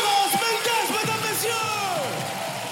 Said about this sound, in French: Mesdames, messieurs, je vous demande de garder la même énergie. On augmente, on augmente, on augmente, on augmente, on augmente. On fait du bruit pour ma poteau. Je suis trop content qu'elle soit là.